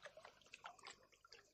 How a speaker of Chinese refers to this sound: 下雨了，雨水顺着垂挂在山洞外面的藤蔓往下滴，眼前是满眼的绿，那绿仿佛要随着雨滴从叶尖上流下来。